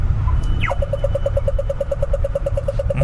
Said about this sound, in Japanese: この音は何ですかねえーと、これはですね、はい、あのオーストラリアの歩行者信号で青になった時に鳴る音です。はははああ、なるほど。うこれすぐ赤になっちゃうんですよね。すぐ赤になっちゃう。